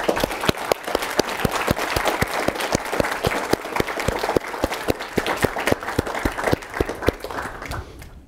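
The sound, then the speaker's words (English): A crowd applauds a panel of country representatives steadily for about eight seconds, dense overlapping claps forming a loud, even wash of sound that stops abruptly at the end. “So a round of applause to all of you.”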